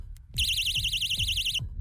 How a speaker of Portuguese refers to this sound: para encerrar eu vou me despedir com a minha buzina, olha só.